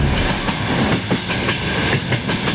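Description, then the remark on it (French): A train heading east, just past Kazan, rolls steadily along the rails, a continuous low rumble broken by regular clicking beats from the wheels passing over track joints, with no voices. “Qu'est-ce que tu fais dans ce train Je pars vers l'est.”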